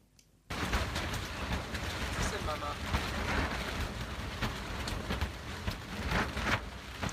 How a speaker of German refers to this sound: Es kommt vielleicht nicht ganz so rüber, aber was da so knistert, das ist Regen auf der Zeltplane, unterbrochen durch Windböen.